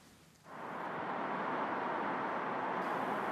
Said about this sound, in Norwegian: En og annen bil suser av gårde på Django Menwai-avenyen midt i Beijing. Det er ingen kø og ingen stampe, og det har ikke skjedd på mange år.